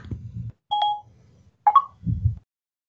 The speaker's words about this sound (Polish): To ty masz wiewiórki w telefonie.